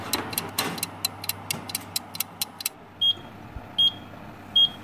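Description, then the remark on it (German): A kitchen oven timer ticks rapidly for a few seconds while bread bakes in the oven, then rings with three short, high-pitched beeps spaced evenly apart. No one speaks. “Oh, es hat geklingelt. Jetzt muss ich den Ofen ausschalten.”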